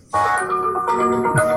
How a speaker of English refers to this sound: That's my jam. Oh yeah, it's my favorite song that's my phone alarm. Sorry.